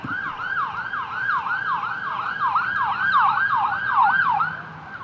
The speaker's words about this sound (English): That was an ambulance just passed me by there. So uh, hopefully no one's hurt.